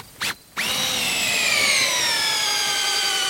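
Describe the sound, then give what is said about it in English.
A power drill gives a quick test burst, then runs steadily as it bores into a hay bale made from failed crops to take samples for nitrate testing, its loud whine sagging slightly in pitch under load. “He drills into a bale to get samples to test for nitrates.”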